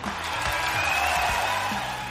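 A steady round of applause, dense and continuous throughout, with a faint whoop or cheer rising briefly in the middle.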